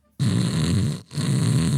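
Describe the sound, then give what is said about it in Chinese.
Someone imitates a man's very loud snoring with their voice: two long, rough, rattling snores, low-pitched and buzzy, separated by a brief breath-like pause. “那个大哥当时也是，当时大哥打呼噜，大哥这个呼噜声特别大，就这样”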